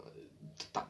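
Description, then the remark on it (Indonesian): A wall clock gives two crisp ticks in quick succession, fairly soft, over a quiet background with a faint murmur of voices. “jam bunyi jam dinding itu kedengaran tik tik tik bunyi hujan oh, oh ya lanjut itu bunyi jam pak bunyi jam eh.”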